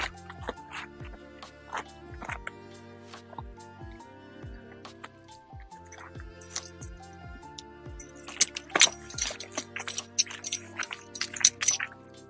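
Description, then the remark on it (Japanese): Keys jangle in a cluster of bright metallic clinks about two-thirds through as they are picked up, fairly crisp, after a stretch of soft, irregular low tapping and dripping sounds with no talking. “ちょっと待って。鍵と、鍵とるわ。”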